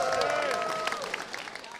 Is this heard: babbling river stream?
no